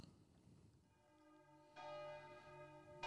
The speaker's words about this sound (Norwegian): Ja, litt bjeller i starten.